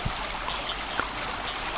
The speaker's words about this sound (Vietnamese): Tôi nằm im nghe ngóng. Có tiếng nước sông chảy, tiếng lịch kịch song nổi dưới bếp.